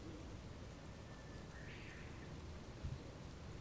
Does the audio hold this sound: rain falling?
yes